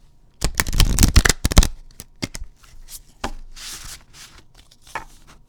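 Oracle cards being shuffled for a collective reading: a dense burst of crisp riffling clicks and snaps for about a second, then scattered softer flicks and a papery rustling slide as the deck settles.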